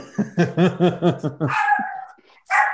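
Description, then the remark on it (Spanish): A female dog barks in a quick run of about six sharp barks, then lets out a couple of higher, whiny yelps. Loud, with no voices. “Está ladrando la perra.”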